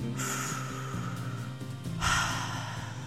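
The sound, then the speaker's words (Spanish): Two slow, deep breaths, a long airy inhale drawn in, a brief pause, then a fuller rushing exhale, clear with no talking over them. The breaths are taken while counting to three before acting. “Y entonces este conteo debe de ser voy a contar hasta tres respirando.”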